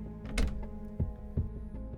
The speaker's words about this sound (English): here is the glass door to her rooms. Is it bolted? I'll try it first.